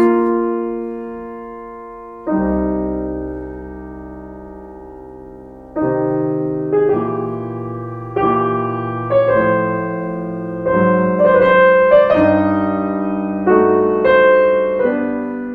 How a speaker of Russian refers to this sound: И сонату предлагается играть буквально с тяжелым сердцем, беклемт. Комментарий композитора. Послушаем начало 26-й фортепианной сонаты. Что тут слышит кардиолог?